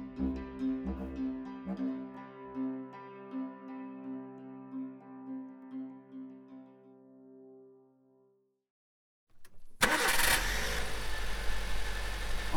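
vehicle, car engine idling

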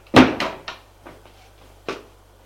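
household object, door being closed

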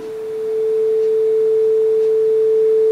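signal or alarm, telephone dial tone

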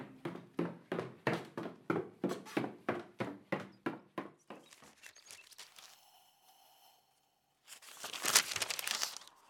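household object, newspaper pages rustling

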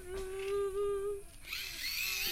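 insect, mosquito buzzing

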